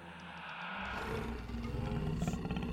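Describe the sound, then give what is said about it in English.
A lion roars loudly, a deep rumbling growl that swells and sustains for a few seconds without any talking. “The lion! He's come to life!”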